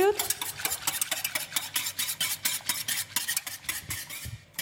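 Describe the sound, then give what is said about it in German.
A spoon briskly stirs aspic powder into hot water for a roast aspic, scraping and clinking against the sides of a bowl in a steady, rapid rhythm of bright, gritty strokes with no talking. “Das ist jetzt mit heißem Wasser Sülzenpulver angerührt.”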